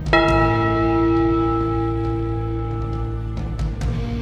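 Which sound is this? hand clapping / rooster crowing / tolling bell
tolling bell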